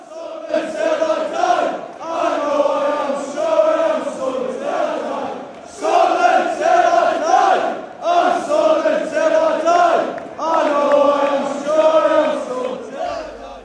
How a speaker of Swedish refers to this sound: Ja, bara för här, för att in, insupa lite stämning så kan vi lyssna på hur, hur det lät när Sunderland-supportrarna faktiskt eh, hyllade sina spelare efter den här förlusten som det ändå blev.